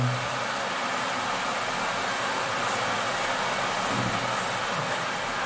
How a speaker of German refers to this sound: Ja, da, da, geht, da läuft der Wasserkocher.